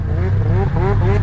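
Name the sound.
snowmobile engine revving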